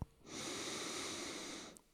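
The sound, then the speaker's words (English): A long, steady inhale drawn in through the nose as a cleansing breath, airy, lasting about a second and a half before tapering off with a faint click at the end. “So, breathing in through the nose, you can fill the body all the way up.”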